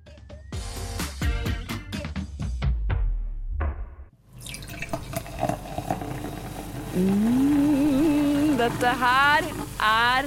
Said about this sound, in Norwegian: virkelig lyden av fredag, vil jeg si. Det er lyden av brus som kommer oppi glass.